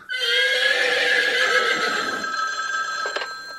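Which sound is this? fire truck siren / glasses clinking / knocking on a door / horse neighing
horse neighing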